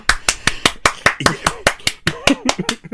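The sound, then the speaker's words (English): A steady run of sharp hand claps, about a dozen at a brisk, even pace, bright and fairly loud, with a voice talking faintly underneath in the second half. “I'm gonna eighty five percent of the episode just gonna be claps.”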